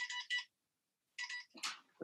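A phone ringtone plays bright electronic tones in two quick bursts, pauses for most of a second, then rings again before a brief, noisier sound cuts in at the end.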